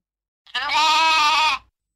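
A single loud, drawn-out sheep bleat lasting about a second, clear with a wavering, nasal tone, set against silence before and after.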